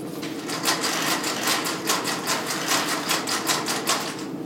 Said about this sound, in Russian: Незрячие играют футбольным мячом. На вид обычно, но внутри погремушки.